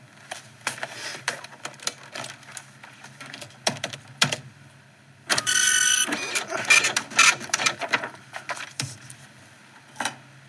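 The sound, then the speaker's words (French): Irregular keyboard typing, fairly clear, runs of clicks with brief pauses as a police statement is typed up, broken midway by a dense, loud mechanical whirring burst lasting about a second. No one speaks. “Bon, bah, j'écris ça alors.”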